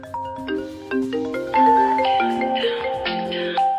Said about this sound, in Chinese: 朋友们，你们的电话响了。